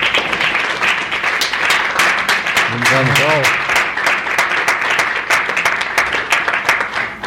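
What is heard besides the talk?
audience applause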